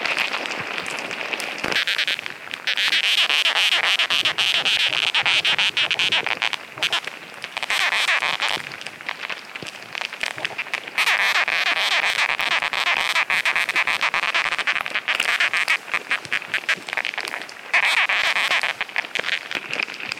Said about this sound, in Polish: Przechodząc obok mrowiska, często zastanawiałem się, jak one się dogadują, jak te mrówki się porozumiewają. Posłuchajmy przez chwilę, jakie dźwięki można usłyszeć, przykładając mikrofon kontaktowy do powierzchni kopca mrówek.